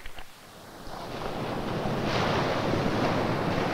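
Waves wash against a lake shore in a steady, broad rushing roar that swells after the first second and holds loud, with a faint breath of wind mixed in and no voices.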